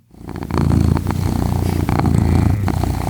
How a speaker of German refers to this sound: Ich fühle mich da sofort wohl, ehrlich gesagt. Also es ist wirklich ein, ein Schnurren einer Katze ist ein sofortiges Wohlgefühl bei mir.